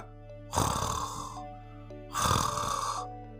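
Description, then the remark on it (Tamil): A voice imitates loud snoring, two long rasping snores at a steady, slow pace with a short pause between them, clear with no talking. “அப்படின்னு குவாரட்டை விட்டு தூங்கிட்டு இருந்தான்”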